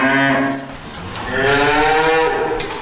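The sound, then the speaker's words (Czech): Cows moo loudly in the resting area of a dairy barn, where they lie with small calves: two long drawn-out calls back to back, the second rising and stretching longer, with no talking over them. “Všechny kravky tady leží, dokonce i ty s těmi maličkatými telátky a řada jich za námi přišla.”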